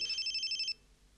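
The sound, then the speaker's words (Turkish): A telephone rings with a rapid, trilling electronic burst lasting under a second, then cuts off, leaving quiet with no one speaking. “Açma o telefonu. Ama Nilay arıyor.”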